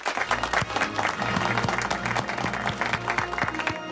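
Steady, dense applause fills about four seconds at a fairly even loudness, with a rhythmic musical backing and its low tones running underneath the clapping.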